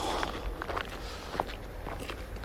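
Footsteps walking along a riverside path beside the Nogawa river in Mitaka, Tokyo, at night in near darkness, a steady series of soft crunching steps over a low background hiss, with no voices.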